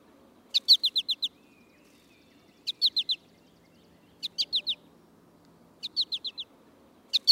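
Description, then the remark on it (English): An American goldfinch repeats its flight call, quick bright bursts of four or five high chirpy notes, each group spaced a second or two apart, over a soft low background hum. “That is the American goldfinch, and the uh, the mnemonic to remember its flight call,”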